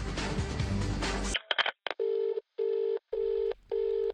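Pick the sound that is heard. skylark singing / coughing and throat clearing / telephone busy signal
telephone busy signal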